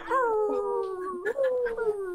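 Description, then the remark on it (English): Several people howl like wolves at once, long drawn-out cries sliding slowly downward in pitch, overlapping and fairly loud, lasting a couple of seconds. “Give them a couple wolf howls, guys.”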